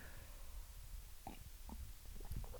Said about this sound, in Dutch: Um, ik neem nog even een slokje thee.